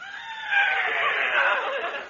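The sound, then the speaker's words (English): A horse whinnies in one sustained, high, quavering call lasting about two seconds, fairly loud, with no talking over it. “There's that daffy guy's horse, Numskull.”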